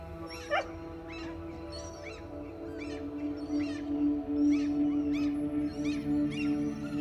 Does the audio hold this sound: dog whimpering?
yes